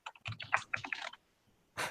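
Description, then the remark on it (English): A quick burst of computer keyboard typing, with rapid uneven clicks of keys. A short pause follows, then a final louder clatter of keystrokes. No one speaks. “Let's see. I type typing.”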